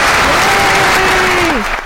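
Continuous hand clapping fills the whole stretch, a dense, steady patter of applause from a person applauding themselves, with a faint sustained hum underneath that slides downward near the end.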